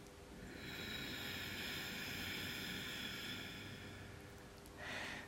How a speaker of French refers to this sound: Voilà, je pense que tu as pu attendre, comme cette respiration est bruyante, on entend du coup cette contraction du fond de la gorge.